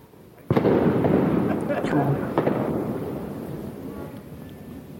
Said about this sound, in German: ihr hört im Hintergrund Geböller, das liegt daran, dass der 31.12. ja auch, auch Dieses Jahr auf Silvester fällt.